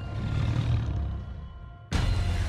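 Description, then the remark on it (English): Deep, loud growling roars of giant wolves running wild in a forest, one sustained snarl fading slightly before a second roar bursts in abruptly. No one speaks. “Giant wolves ran wild.”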